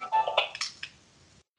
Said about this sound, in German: Das war der Wecker, wir sind jetzt, wir sind eigentlich eh schon wieder am Ende unserer Zeit angekommen.